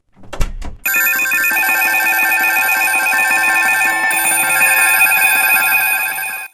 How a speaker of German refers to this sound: ein mega Monsterwecker, den er wohl auf die Schnelle zusammengeschustert hatte. Nur war der Wecker so groß, dass der kleine Hund den Knopf zum Ausschalten nicht mehr erreichen konnte.